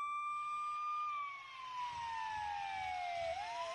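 A fire engine siren wails loudly as the fire brigade rushes to the scene, holding a high tone before sliding steadily downward and rising again at the end, with traffic rumble underneath and no voices.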